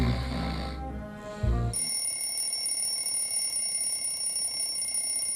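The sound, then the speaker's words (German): An alarm clock rings early in the morning, time to get up: it rings loudly for under two seconds with a harsh, buzzing metallic tone, then gives way to a steady, faint high-pitched whine that holds to the end. No one speaks. “Der Wecker klingelt gnadenlos.”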